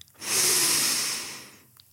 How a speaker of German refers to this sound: Holt mal ganz tief Luft.